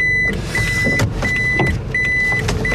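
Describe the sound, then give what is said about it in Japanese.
A car engine rumbles steadily as the car is parked into a garage from the opposite side than usual, while a high electronic tone sounds in repeated stretches, like a parking sensor warning during slow maneuvering, with occasional clunks and no talking. “あとちょっと車庫入れが難しいことだったいつもと反対から入れたから”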